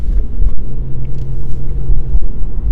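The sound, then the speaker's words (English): Steady, loud low rumble from inside a moving car, a deep continuous road and engine drone with a couple of faint knocks; no one speaks. “Um, this is you know another talks on the car.”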